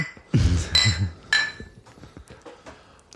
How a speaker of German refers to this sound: Also dann warte mal kurz, Prost, äh, ich auf, erhöhe auf mein Glas.